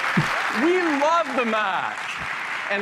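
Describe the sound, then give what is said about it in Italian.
An audience at a Mac presentation gives steady applause, a dense wash of clapping that holds at a constant level for the whole stretch, with a man's voice speaking over the top of it. “Noi amiamo il Mac e qua applausone.”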